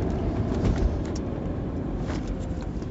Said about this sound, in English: This is the second day in a row I've hit traffic, guys, and I don't like it.